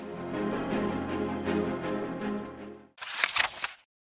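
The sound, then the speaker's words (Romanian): A steady humming tone with soft regular pulses gives way to a quick, loud burst of sharp, thin clattering taps, a cane striking a cobbled road in Africa in rapid succession, then silence. “În Africa, când am auzit clinchetele subțiri și repezi ale unui baston izbind drumul pietruit, știam că era sâmbăta ziua cerșetorului.”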